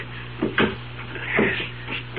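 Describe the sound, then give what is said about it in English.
Suitcases are dragged out of tight spots, one from behind a refrigerator and one from under a sink, with several hollow bumps and a scraping shuffle over a steady low hum; no one speaks. “We're going to move the suitcases. Now, you get the one behind the refrigerator, and I'll get the one under the sink.”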